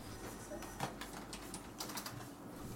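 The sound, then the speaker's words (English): Quiet private office room tone, around 40 decibels, with a low steady hum and a few soft, scattered clicks and taps, like faint typing or desk activity. “A private office is around 40 decibels.”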